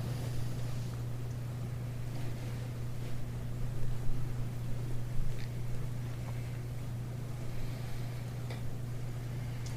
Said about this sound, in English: It's nice to hear the sound of the rain. This is the body of spring.